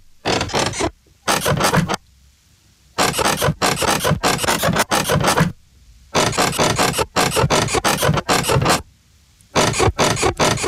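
Rhythmic squeaking of a roommate's bed, loud, in quick repeated strokes that come in bursts separated by short pauses, with a raspy, scraping quality and no voices.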